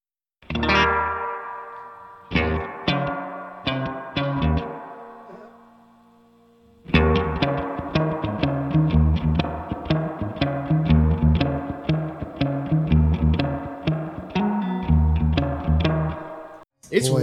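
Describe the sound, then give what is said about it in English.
An electric guitar played through a tape echo pedal plays chords and notes drenched in the pedal's wet reverb. A long tail rings out and fades during a pause, then denser, echoing playing resumes and continues to the end. “Okay, so I'm not buying this pedal for the that reverb anyway, no, probably.”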